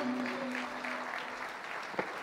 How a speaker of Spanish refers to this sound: aplauso de alabanza para el Señor.